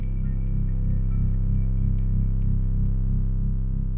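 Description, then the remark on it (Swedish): A steady low-frequency hum, the worldwide phenomenon known as The Hum, drones on without a break, thick with stacked low harmonics and a slow, gentle pulsing. A faint high whine sits above it, with no voices. “Tänk om ljudet kommer från dem och det enda som finns kvar av ljudet när det når oss är bara ett lågfrekvent buller”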